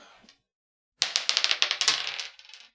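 Dice are rolled across a hard tabletop during a tabletop role-playing game, coming up a 5, in a quick burst of rattling clicks and bounces, fairly loud, settling after about two seconds; a brief faint rustle comes just before.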